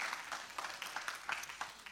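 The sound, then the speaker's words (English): A church audience applauds the Lord as the offering is brought back, a dense steady patter of many hands clapping at moderate volume, with no one speaking over it. “so applaud the Lord, let the offering come back.”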